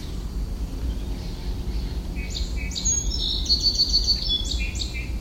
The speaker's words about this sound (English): So it was an argument between two robins, and then a song sparrow.